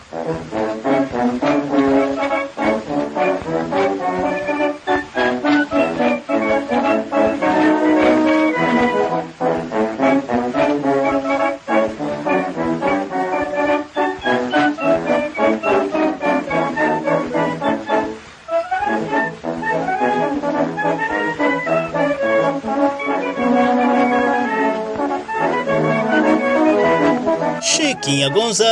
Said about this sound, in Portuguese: Ouça um trechinho desse som instrumental antigo, também conhecido como machixe aristocrático.